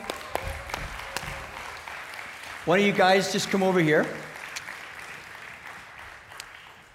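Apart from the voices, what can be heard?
audience clapping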